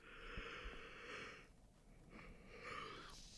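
A big, drawn-out yawn, a long breathy inhale followed by a brief pause and a second airy, groaning exhale, with no talking.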